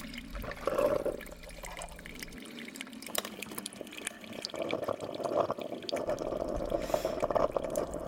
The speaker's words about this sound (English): I would stand there on the cold tile floor of our kitchen, staring at the cheap plastic coffee machine making its grating, gurgling noise, and wish I could speed up time.